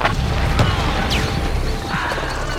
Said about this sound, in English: We curled up, and the explosions went off in the clearing a mix of high explosive and gas rounds. Not very accurate fire either, which made sense.